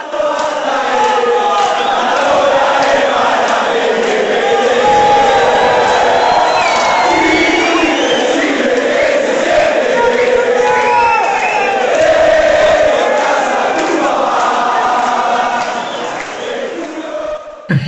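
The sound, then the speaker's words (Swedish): A large crowd of Argentine football supporters sings a chant about Maradona being greater than Pelé, a loud, steady wall of massed voices with rising and falling melodic lines that carries on without a break for nearly the whole stretch. “Och hela natten blev förstörd av den argentinska supportersången om att Maradona är större än Pelé.”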